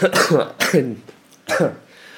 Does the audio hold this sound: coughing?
yes